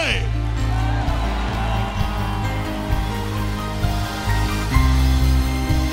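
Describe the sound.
A church audience shouts and cheers together in response to the preacher's call to shout if they believe, a loud, sustained roar of many voices, filling the whole stretch with a dense, reverberant wash of sound.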